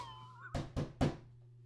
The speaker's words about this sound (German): Oh, warte, es klopft an der Tür. Warte kurz.